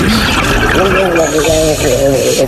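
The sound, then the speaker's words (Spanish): A steady underwater water sound effect, a dense muffled rush and bubbling wash that fills the short clip, with a voice-like humming murmur drifting over it. “Una búsqueda ciertamente exhaustiva si es necesario hasta en el fondo del mar.”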